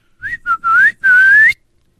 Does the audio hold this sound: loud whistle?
yes